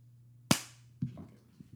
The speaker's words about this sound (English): That was a, a decent clap.